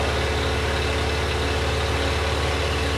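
Car engines idle in a traffic jam on the Route Nationale 7 at Lapalisse, a steady low rumble and throb that fills the whole clip without pause, fairly loud, with no voices.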